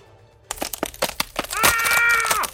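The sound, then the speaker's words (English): A rapid series of sharp, loud cracks snaps out as a man's arm is broken at the elbow by a hard kick, then gives way to his piercing, sustained high-pitched shriek of pain that holds for nearly a second before cutting off. “Multiple cracking sounds were followed by a head splitting shriek as pain razored through Anshuman's body.”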